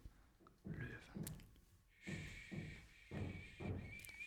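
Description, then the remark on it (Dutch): Heavy, muffled knocking on a door: three pairs of dull thuds at a steady pace, with a thin high-pitched whine starting partway through and continuing underneath. “Ja, ze kloppen op de deur, hè.”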